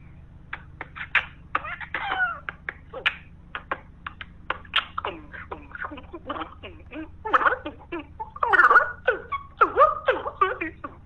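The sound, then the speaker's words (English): A voice beatboxing, a rapid string of sharp mouth clicks, pops and hissy percussive bursts in an uneven rhythm, with some pitched vocal squeaks mixed in and a low steady hum underneath. “You want to hear me beatbox?”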